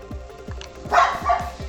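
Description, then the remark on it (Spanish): A dog barks twice in quick succession, sharp, over a steady low rhythmic thumping in the background. “No creerás todo lo que oirás de tu perro.”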